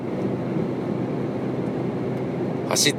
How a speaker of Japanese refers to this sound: 新しくできた、えー、高速に乗っていますこれはお金はでもかかんないみたいだな料金所ないから